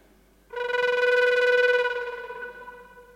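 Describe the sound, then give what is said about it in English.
A Native American flute plays one sustained, growled note meant to sound like a bear, made by doing K's in the back of the throat into the flute: a steady mid-pitched tone with a rough, buzzing rasp that swells in and slowly fades over about three seconds. “Yeah, so just do that into the flute and you've got a bear.”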